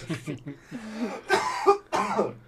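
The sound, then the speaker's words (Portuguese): A person coughs in a few harsh, sputtering bursts after choking on saliva, with short vocal strains and throat sounds between them, fairly loud. “Engasguei com saliva.”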